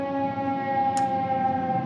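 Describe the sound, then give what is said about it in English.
A steady, sustained siren wail from outside drones continuously and evenly, with a brief faint click partway through and no talking. “COVID is back, but judging by the sirens and.”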